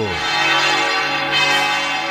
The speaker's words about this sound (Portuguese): Ouvinte, preste atenção. Aumenta o volume do rádio. Vamos ouvir os sinos da maior basílica do mundo.